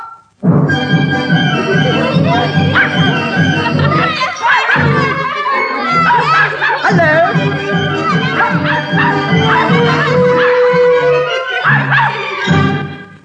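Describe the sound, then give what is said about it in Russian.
A puppy named Alberg barks and yips, mixing quick barks with whiny, howling tones in a steady, loud stream for over ten seconds, with no talking over it. “И он даже обрадовался этому, потому что он хотел иметь обыкновенную собаку, а не какую-то говорящую.”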